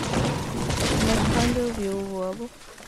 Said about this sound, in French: Un arbre lui tombait dessus. Un énorme bruit retentit.